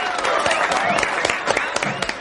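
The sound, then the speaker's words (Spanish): A man and a smiling woman in long gloves clap after dancing cheek to cheek, hands giving a quick, steady stream of sharp, bright smacks, overlapping into a continuous patter of applause, with a faint murmur of voices underneath. “Ella también aplaude, sonriendo.”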